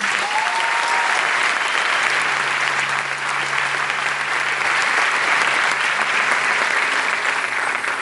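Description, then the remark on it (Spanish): A crowd applauds their founder steadily and loudly for several seconds, a dense, sustained clatter of many hands clapping at once with no voices standing out. “Así que hoy nuestro fundador se merece un fuerte aplauso.”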